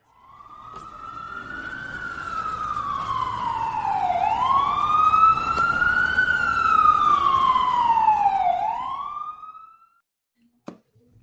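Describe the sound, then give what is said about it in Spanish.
An emergency vehicle siren wails steadily and loudly, rising and falling in slow sweeps for about nine seconds before cutting off, followed by a faint click. No voices are heard. “Y escucho por ahí una sirena.”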